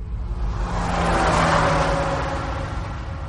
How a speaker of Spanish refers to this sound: Cuando se aproxima, el ruido del motor aumenta. Y cuando se aleja, el ruido del motor disminuye.